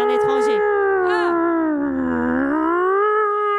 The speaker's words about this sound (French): c'est la sirène. Oh, bah, c'est le premier mercredi du mois.